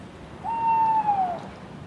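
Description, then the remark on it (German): A single drawn-out owl hoot, a clear steady tone lasting almost a second that dips slightly as it fades, heard alone over a faint, hissy background. “Einen Tag später brachte die Frau die kleine Eule wieder zurück in ihren Wald.”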